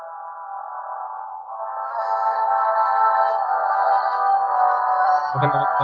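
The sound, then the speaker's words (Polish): The Uncharted video game theme plays from a console, turned up to maximum volume while the game loads, as sustained, layered tones that hold a steady chord, swelling louder after a couple of seconds, with a brief low thump near the end. “Jakość, znaczy jakość, wiesz, tutaj przesyłu nie jest wystarczająco dobra, żeby to oddać, ale no tak, motyw znajomy z Uncharted słychać.”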